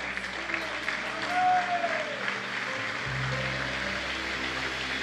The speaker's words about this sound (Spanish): Démosle fuerte esas palmas al Rey.